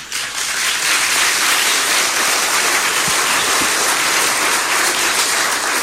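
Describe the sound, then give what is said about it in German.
Sustained audience applause, a dense, steady wash of many hands clapping at an even loudness for several seconds with no talking over it. “Das verdient keinen Applaus, das ist ein fürchterliches Geschäft.”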